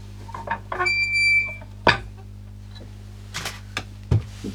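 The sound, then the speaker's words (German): A foley imitation of a small garden gate opening: a thin, drawn-out creak as it swings open, followed by a sharp clack and a few light knocks, with a steady low hum underneath. “Das kriege ich jetzt so rein technisch, glaube ich, nicht so gut hin, aber einfach so dieses, dieses Öffnen von einem kleinen Garagentor, äh, Gartentor.”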